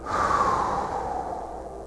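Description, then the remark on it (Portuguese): A long, steady exhale of breath as a person releases a held breath, fairly loud, airy and continuous for nearly two seconds as it slowly tapers off, with no talking. “Agora respira, Segura a respiração e solta.”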